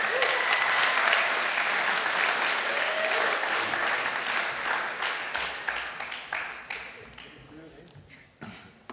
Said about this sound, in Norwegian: Kom an, gi dem en applaus.